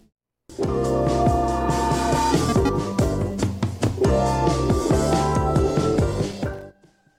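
A full-band pop song plays loudly with steady rhythm, bright harmonic chords and driving drums, starting after a brief silence and cutting off abruptly near the end.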